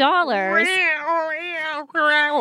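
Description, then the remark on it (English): An angry cat meows, three loud, drawn-out yowls in quick succession, each wavering and bending in pitch, with no one talking over them. “that cat is furious.”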